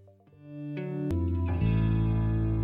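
A rock song plays with effects-laden, distorted electric guitar, starting sparse and quickly thickening into a full, loud, sustained band sound. No one speaks over it.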